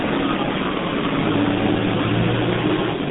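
A heavy tractor engine drones steadily as the tractor pulls into a GTP site, a low rumbling motor noise that stays constant for a few seconds with no voices over it.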